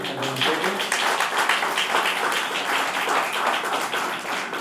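An audience bursts into sustained applause, many hands clapping in a dense, steady crackle at an even loudness, with no voices breaking through.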